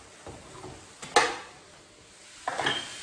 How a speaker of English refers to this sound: just about all the pink is gone, so I'm gonna go ahead and grab a strainer and strain off the excess water and grease.